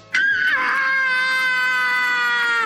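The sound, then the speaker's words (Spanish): A girl character in the anime Ranma ½ lets out a sudden, piercing scream that holds at a steady high pitch for more than two seconds, loud, with no talking. “¿Qué pasa? ¿Por qué gritas así?”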